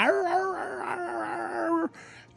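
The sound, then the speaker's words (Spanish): A person imitates the howl that ranch dogs in Mexico made before an eclipse, with one long, wavering, sustained cry that holds steady for nearly two seconds, then stops abruptly, leaving a brief quiet rustle. “Antes de que sucediera el eclipse, los perros del rancho empezaban a aullar.”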